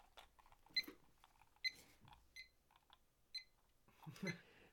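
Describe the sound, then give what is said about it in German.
A handful of short, high electronic beeps from an alarm clock, spaced irregularly, mixed with soft clicks and rustling of the device being handled. Nobody speaks. “ich habe die ganze Zeit mit diesem scheiß, mit diesem scheiß Wecker, der hat nämlich so richtig ekelhaft gepiept.”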